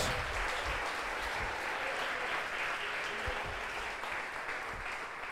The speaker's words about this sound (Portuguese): Aleluia! Pode aplaudir ao Senhor, aleluia! Uh! Glória a Deus!